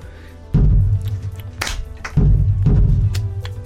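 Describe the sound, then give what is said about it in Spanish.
Deep, booming bass drum hits with long ringing low tones, struck a few times at an uneven, unhurried pace, loud and with no voices. “Por ejemplo, yo voy a marcar primero el bombo, que es este tambor.”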